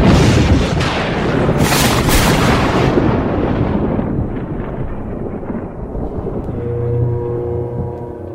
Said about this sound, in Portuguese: Os chutes do motorista na criatura não abalam e logo um relâmpago cai dos céus, atingindo o monstro e, por corrente, o rapaz.